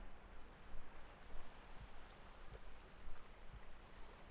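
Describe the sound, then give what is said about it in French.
Gentle small waves from a low-coefficient tide wash softly onto a beach at sunset, with no swell, a low continuous swish with faint rhythmic surges, muted and calm, with no voices. “La marée lance quelques vagues molles sur la grève. Son assourdi de petits coefficients.”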